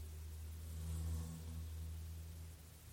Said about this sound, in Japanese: あ、ちょっと車がいや、バイクか。バイクがなんか通り過ぎそうでちょっと音が入るかもしれないです。